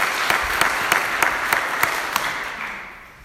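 A church audience applauds steadily for a member coming forward to speak, a dense wash of many hands clapping with a few sharper individual claps standing out at regular intervals, fading slightly toward the end.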